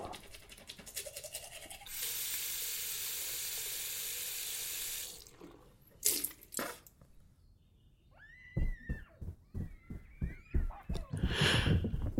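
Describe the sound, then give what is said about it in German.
Toothbrush bristles scrub in quick rhythmic strokes as a person brushes their teeth while sitting on the edge of a bathtub, interrupted by a few seconds of running tap water, then more brisk scrubbing mixed with faint squeaky chirps. “Zahnbürste in der Hand kippe ich in mich zurück, schließe die Augen und höre den Borsten zu.”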